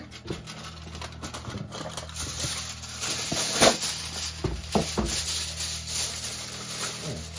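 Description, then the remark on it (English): Steady crinkling and rubbing as aluminum foil and parchment are crimped around a pan holding lamb to make a seal, with scattered sharper crackles and brief taps throughout and no voices. “So I'm just going around and making sure I've got a good seal.”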